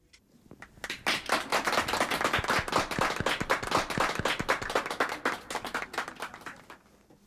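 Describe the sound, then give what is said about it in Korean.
Steady, brisk hand clapping from a few people, cheering for a singer's live recording that lacked crowd cheers, rising quickly after a quiet start and continuing loudly for several seconds with dense, sharp slaps before tapering off at the end. “같은 라이브인데도 사람들 환호 소리가 없어서 좀 쓸쓸해 보이긴 했는데 우리라도 환호를 좀 해드릴까요?”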